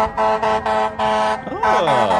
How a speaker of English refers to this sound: Mr. Honky. Fire trucks coming in.